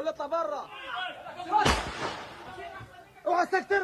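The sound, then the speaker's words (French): A loud, sharp crack of assault rifle fire cuts in once, a short harsh blast that rings out briefly while men shout and talk before and after it, one shouting orders; fired by Hamas gunmen inside kibbutz Be'eri at about 6 a.m. on a Saturday. “En réponse, régulièrement, des rafales de fusils d'assaut retentissent.”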